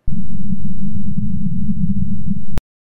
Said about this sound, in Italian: questi saluti da Marte che sembrano quasi un terremoto, un vento, sono esattamente il suono che si sente sul pianeta rosso. Ringraziamo la NASA, ringraziamo JPL e soprattutto il nostro ospite di oggi che ci ha inviato questo file.